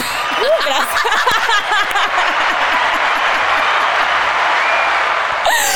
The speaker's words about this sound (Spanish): Hay que ponerse unos aplausos.